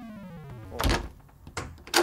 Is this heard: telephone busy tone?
no